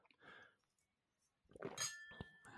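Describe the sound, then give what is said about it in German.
Glasses clink together in a toast: a dull knock from a fairly full glass followed by a brighter ringing chime from the other glass that lingers briefly, fairly loud, with a few soft clatters around it. “Ich proste jetzt. Du hörst, das Glas ist ziemlich voll, darum ist der Klang ziemlich dumpf.”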